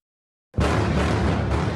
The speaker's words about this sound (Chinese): 入夜之后，隆隆炮声近在咫尺。以色列大军的空袭周末也不停，不止北加萨第二大医院圣城医院附近被轰炸，医院内似乎也惨遭波及。